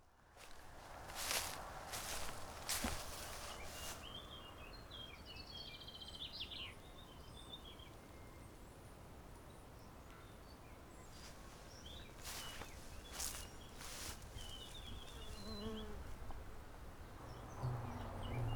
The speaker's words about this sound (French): paysage sonore, la campagne provençale. Au milieu d'un champ,